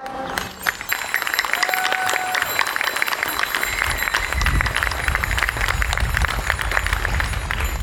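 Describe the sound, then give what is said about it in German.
Sustained applause from an audience at a cycling demonstration in Magdeburg, a dense crackle of many hands clapping steadily at a loud, even level for several seconds, with a few faint whistles and calls mixed in, applauding the helpers and participants. “Deswegen mal einen großen Applaus für alle Helfenden und für euch.”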